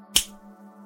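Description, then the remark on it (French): A single sharp finger snap, bright and crisp, cutting in over a steady low electrical hum that continues after it fades. “Parfois ça peut changer en un claquement de doigts.”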